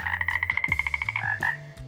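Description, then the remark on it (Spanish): A voice imitates a toad, making a fast, steady run of about a dozen loud croaks followed by a couple of slower, drawn-out ones, with no talking. “Emitir ruiditos de sapo no te va a excusar de asistir a la escuela.”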